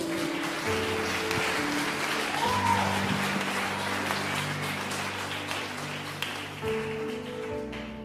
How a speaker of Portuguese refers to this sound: Pode aplaudir a Virgem Maria.